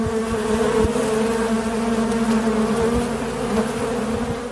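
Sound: honeybee swarm buzzing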